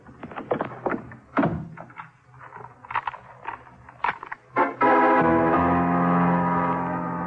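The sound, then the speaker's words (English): A scatter of knocks and bumps leads up to one loud front door slam, which is immediately followed by a sustained musical chord that rings out to the end. “When I heard the front door slam, I started kicking my way out.”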